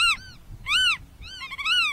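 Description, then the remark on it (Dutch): A black-tailed godwit gives three loud, nasal calls in quick succession, each rising then falling in pitch, over faint background rumble, with the last call doubled. “Die zijn naam te danken heeft aan het feit dat Vogelend Nederland denkt dat de grutto als een soort Pokémon zijn eigen naam bij elkaar Pikachu't.”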